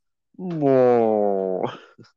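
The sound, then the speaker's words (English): A single drawn-out, mournful creature growl, tonal and slowly sinking in pitch, loud, trailing off into a rough, breathy end with a brief grunt after, heard as a box is pushed over a cliff edge into a quarry. “then he pushes it over and we hear this sad like growl as he pushes it in”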